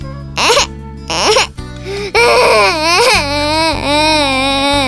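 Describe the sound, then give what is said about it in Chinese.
A newborn baby cries at the moment of birth: two short wailing bursts, then a long, loud, continuous wail with rising and falling pitch, over a soft steady musical background. “我们出生的那一刻，第一个发出的声音是什么呢？ 是哭声啊！”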